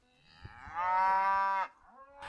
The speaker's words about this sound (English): So the cows in the right hand field, who are separated by a fence, start trying to communicate with them, saying, Come back, come back.